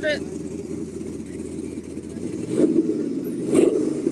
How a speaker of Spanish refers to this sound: ahorita que entre el tractor y regresamos al ratito.